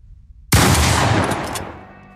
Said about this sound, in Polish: Strzał. Ziemia eksplodowała jakiś metr od leżącego premiera, wzbijając w powietrze skawalone błoto i liście.